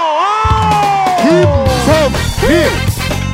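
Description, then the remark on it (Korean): A loud crowd cheers and whoops continuously, rising voices sweeping up and down over a dense wash of applause that fills the whole moment, as an audience welcomes a guest onto the show. “여큰 그 박수로 맞아주세요.”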